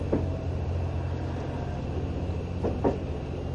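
Inside the Green Car of an HC85-series hybrid diesel Limited Express Hida No. 1 train bound for Takayama from Nagoya, a steady low engine and motor drone hums evenly throughout, broken by a few soft clunks near the start and end. No one speaks.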